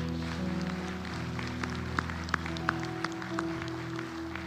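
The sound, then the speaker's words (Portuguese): A church audience claps and applauds for God over sustained keyboard chords, with a steady wash of clapping and a few sharper, louder claps standing out near the middle. “Aplaude o teu Deus, aplaude.”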